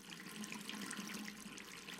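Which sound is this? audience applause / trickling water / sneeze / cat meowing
trickling water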